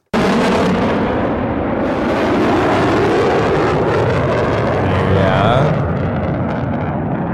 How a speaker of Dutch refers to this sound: F35. Heel goed. Dit is een eh, F35 van de F35 Demo Team.